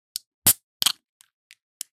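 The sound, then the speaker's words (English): A pinguo sida apple cider drink being opened: a light click, then a loud crack and a short fizzy burst, followed by three faint, scattered ticks. No one speaks. “And that was the sound of a pinguo sida.”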